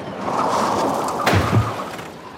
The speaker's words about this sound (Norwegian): Og mens du henter penn og papir og en full pandabjørn, skal vi høre en antilope som blir påkjørt av en hummer.